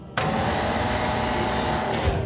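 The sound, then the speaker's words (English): A loud mechanical motor whine starts abruptly and holds steady, a dense electric drone with a faint rising tone, as Carly, a tall yellow gantry crane with a long crane arm and hook, lifts and loads cargo. “When Carly lifts and loads cargo, she sounds like this.”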